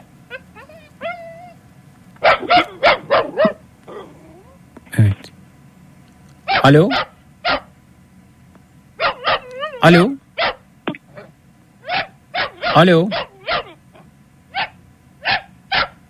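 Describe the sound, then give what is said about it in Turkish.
A dog barks repeatedly in quick bursts, loud sharp barks coming in irregular clusters, while a person speaks briefly between them. “Ama bu köpek burada havlıyor duruyor ya.”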